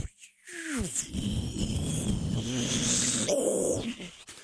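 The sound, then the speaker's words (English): A person imitates with their voice the jet-like sound of the space shuttle on descent, starting with a quick falling whine and then holding a loud, rough, breathy roar for about three seconds, with no other talk. “big jet engine yeah. noises that yeah, so rock the cameras.”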